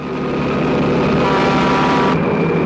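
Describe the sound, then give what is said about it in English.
A heavy 18-wheeler truck engine roars loud in a 1971 thriller film, the menacing truck, seemingly with no driver, chasing the main character through the desert: a steady low rumbling drone with no voices, its hiss dropping slightly near the end. “a 1971 thriller, where the main character spends most of the movie being chased by a menacing 18 wheeler truck, seemingly with no driver, and plowing its way through various spots in the desert.”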